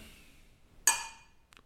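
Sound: beer glasses clinking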